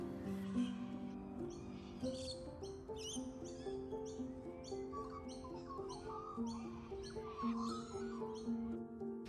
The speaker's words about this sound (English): These birds here are galahs. They're a native Australian bird and they love to come out and look for worms after it's been raining.